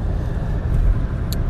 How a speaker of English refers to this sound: And I'm, like I said earlier, I'm recording in my car while I'm driving. So, one, I apologize for the sound quality